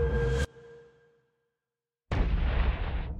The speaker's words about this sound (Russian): он слышит выстрел – который заставляет его вздрогнуть.